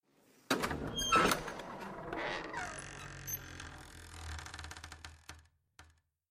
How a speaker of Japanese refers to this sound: 扉が開いた。大きな扉が。